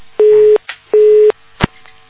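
A telephone busy tone after a call-in caller's line disconnects over a poor network connection and the station host hangs up: two steady, mid-pitched beeps of equal length with a short gap between them, followed by a brief sharp click, and no voices.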